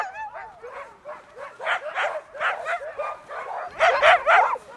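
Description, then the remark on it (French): A chorus of about forty dogs barking and yipping together, overlapping continuously in a noisy, excited din that swells louder near the end, with a few high whines mixed in. “Tous les chiens ici, là, environ une quarantaine de chiens.”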